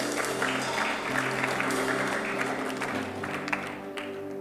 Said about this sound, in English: Give the Lord a good clap offering, somebody.